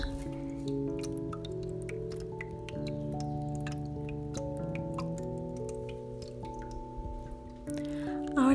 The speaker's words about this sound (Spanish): Siente como la lluvia cae. Se hace un poco más intensa.